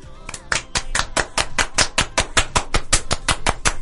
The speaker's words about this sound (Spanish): ¿Y el aplauso?